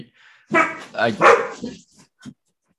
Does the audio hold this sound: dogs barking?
yes